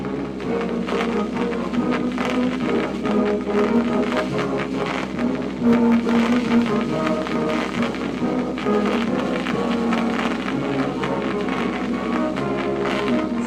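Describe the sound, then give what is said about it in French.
A new vinyl record plays with heavy, constant crackle, dense clicks and pops spattering steadily over faint, muffled music, at an even, fairly loud level throughout with no one talking. The crackle comes from the unusual material the record is made of. “Ça grésille, hein Bah, a priori, c'est qu'il est...”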